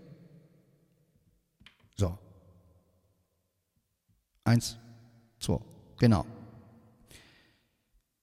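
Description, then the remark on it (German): A man counts and speaks a few short words with a reverb effect on his voice while demonstrating how he sets his effects, each phrase trailing off into a brief echoing tail before quiet gaps. “Ja, gut, jetzt habt ihr also den Hall mal gehört.”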